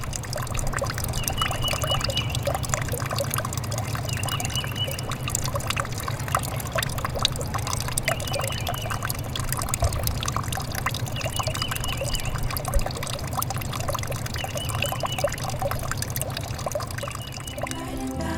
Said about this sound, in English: You've been listening to a drain pipe emptying into a partially frozen creek on the campus of Indiana University Bloomington.